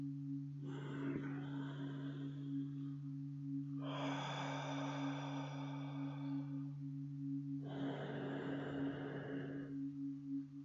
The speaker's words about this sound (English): So, we're going to do some Ujjayi breathing. It's similar to how we breathe in sleep, and it's really relaxing. And we do it by placing the breath in the back of your throat like this.